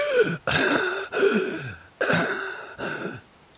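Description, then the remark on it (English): A voice imitates the ragged, wretched breathing of a woman lying on the ground: four harsh, raspy hacking breaths in a row, each a rough throaty rasp with short silent gaps between, fairly loud and with no talking. “and she's just breathing heavily, each one a kind of wretched hack.”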